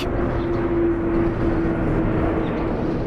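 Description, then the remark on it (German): A steady, low roar of an airplane overhead near Pankow S-Bahn station, one of the planes passing every minute toward Tegel airport on an overcast March morning, holding at a constant level throughout with a faint humming tone running through the rumble. No voices. “Flugzeuge ziehen im Minutentakt über mich hinweg, Richtung Tegel, ein Flughafen, der von Winterschlaf nur träumen kann.”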